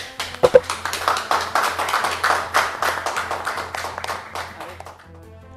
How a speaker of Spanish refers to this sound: Así que de parte de la comunidad, de parte de los medios, yo creo que es partir, ¿cierto?, con este primer aplauso, ¿cierto?, para el equipo médico del Hospital de Mejillón.